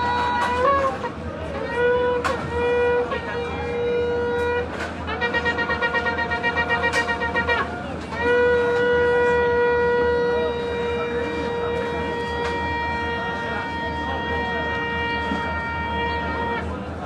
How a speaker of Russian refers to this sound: Это трубление в шафар. Сейчас уже мы приближаемся к Роша и каждый день после утренней молитвы трубят в шафар.